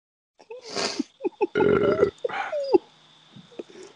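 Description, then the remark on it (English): A person imitates a dog with a few rough, throaty bark-like yelps, fairly loud, one drawn out and gravelly, followed by quieter short vocal sounds; barking at another dog while in traffic on Marco Polo. “But remember when I was in traffic the other day with you and we were on Marco Polo and I was barking at that other dog? Woo, woo, woo.”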